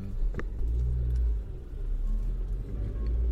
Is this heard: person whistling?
no